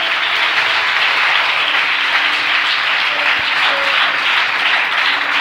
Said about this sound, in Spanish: Dale un aplauso a Cristo esta noche.